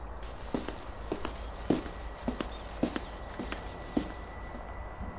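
Steady footsteps of two people walking along the side of a road, searching for someone to interview, at an even pace, each step a crisp tap over a constant background hum and faint high-pitched whine, with no voices.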